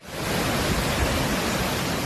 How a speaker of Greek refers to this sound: Τα ορμητικά νερά από την υπερχείληση του ποινιού εισβάλλουν και στην πόλη της Λάρισας. Ακόμη και νερά από τα πλημμυρισμένα καταφτάνουν εδώ και δημιουργούν μια ακόμη κήτη του ποταμού.